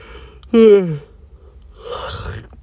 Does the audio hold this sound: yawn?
yes